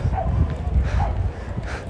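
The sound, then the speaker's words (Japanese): A few distant dog barks sound at spaced intervals over a steady outdoor background hum, faint and far off, at a dog event in a park where dogs and their owners spend a sunny holiday. “入ってどうこうということではないですけども遠巻きに犬とね飼い主さんたちのこの休日の過ごし方を拝見し私は帰路に着こうと思いますよ”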